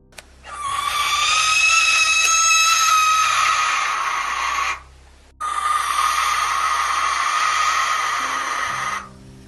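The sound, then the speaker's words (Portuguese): A barn owl gives two long, harsh, hissing screeches, one right after the other with a short pause between. The calls are loud and raspy, with no other sounds around them. “A gente da tá rasga mortalha, só pra gente ter uma noção de Não, como, Não, rasga mortalha é bizarro.”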